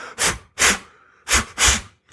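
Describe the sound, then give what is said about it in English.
A person imitates a deer snorting, the sound deer make when unsure while smelling the air: four sharp, breathy nasal bursts in two quick pairs, loud, with short gaps of quiet between them and no talking. “have been a deer in the dark around me, but it, it's a sound of when they're smelling the air and they're yeah. unsure. They go”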